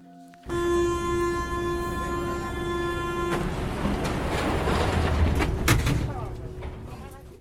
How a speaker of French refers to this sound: Mais quel est ce doux bruit Serait-ce le bruit du métro ligne 3 venant d'arriver en station Parmentier